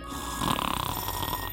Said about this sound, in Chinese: 笨狼双腿一软，扑通倒在路边的草丛里，呼呼大睡。